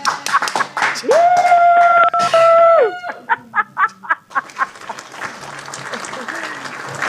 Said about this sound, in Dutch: Zo, applaus.